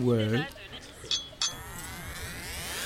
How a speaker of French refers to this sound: Allez, euh, je te sers un petit canon, euh, va